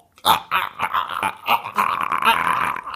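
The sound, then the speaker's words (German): A voice imitates a dying dog's whimpering: a fairly loud run of strained, whiny cries and groans, several uneven bursts blurring together into a drawn-out moan. “Wie so ein toter Hund quasi.”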